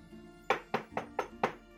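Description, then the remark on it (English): Five firm knocks on the wooden door of a monastery in a steady, even rhythm, clear, with no voices over them. “So, monasteries, you knock on the door because they are not temples or churches where you could just sort of walk in.”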